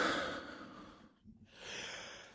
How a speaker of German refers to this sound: Ja, muss ich direkt niesen. Ach, ich liebe es. Immer wenn ich Rinderwahnsinn höre, muss ich niesen.